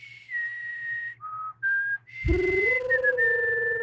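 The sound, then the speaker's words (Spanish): A short, clear whistled melody moving through a few held notes that step down and back up, then turning fuller and louder with a lower tone beneath, like a small creature's song. “De hecho, lo reconoce por el chiflido, por la canción.”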